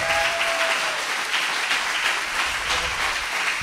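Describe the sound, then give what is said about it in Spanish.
An audience bursts into sustained applause for the Lord during a church service, a dense, steady wash of many hands clapping at once, loud and even for a few seconds with no voices standing out. “Quiero que te entusiasme, que aplaudas al Señor como Él se lo merece.”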